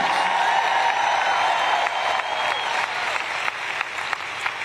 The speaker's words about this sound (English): I guess I'll say it till I can get a better clap than that.